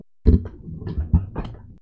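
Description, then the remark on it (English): A cat scratches its claws on a chair: a few irregular, raspy scraping strokes with dull low thumps, moderately loud, with no voices. “Sharpening your claws on my chair.”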